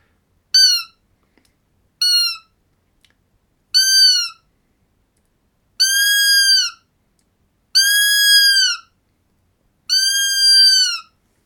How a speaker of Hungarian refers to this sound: Szó szóval szerint széllel szembe szépen lekeresték a területet, hát nyilván nem találtak ott senkit e, e, e, az őzek közül, de, de, de reagáltak a gida hangra, ez ugye ez, ez így szól.